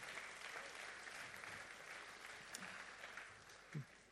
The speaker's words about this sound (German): Einen ganz großen Applaus für Sie auch.